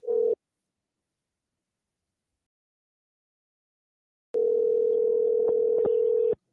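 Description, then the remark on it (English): A phone line's ringback tone on an outgoing call: the tail of one steady electronic ring, a long silent gap, then another two-second ring, clear with no voices. “Let's see if we can get through.”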